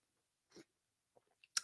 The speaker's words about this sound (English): Excuse me while I take a quick sip.